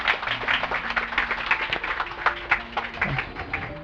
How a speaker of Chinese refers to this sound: 再借用各位的热情的掌声来感谢我们的这个马兰 呃这个部落的一个乐团，好来谢谢。